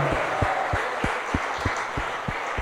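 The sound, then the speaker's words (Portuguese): A church audience applauds the Lord during a worship service in a dense, steady wash of many hands clapping, with a regular low thump pulsing underneath about three times a second. No one speaks. “Aplauda ao Senhor!”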